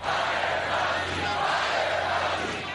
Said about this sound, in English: At the president's rally last night, the crowd broke into chants calling for Dr. Anthony Fauci's removal.